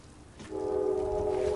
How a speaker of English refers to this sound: Here comes the train again. I'm going to mute up.